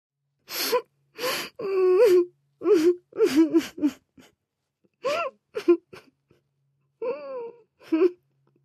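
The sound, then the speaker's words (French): Someone sobs, muffled by the closed door of a bedroom at night, in short, broken bursts, catching gasping breaths between strained, wavering wails, with a few brief pauses of silence. No words are spoken. “La nuit suivante, du coup, euh, quand Ida reprend ses esprits avec les euh, dernières lueurs du jour, elle entend distinctement des pleurs, étouffés par la porte fermée de sa chambre.”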